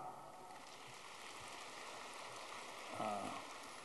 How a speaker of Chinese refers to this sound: 福自来听不懂啊？鼓掌这么小嘛，就是没听懂啊！